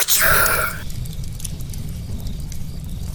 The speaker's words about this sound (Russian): Давайте разожгем костер. Костер, вокруг которого мы сидим такие и рассказываем страшные истории. Звук костра.